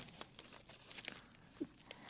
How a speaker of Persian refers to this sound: اگه منو دوست داری این شعر رو پاره کن خواهش میکنم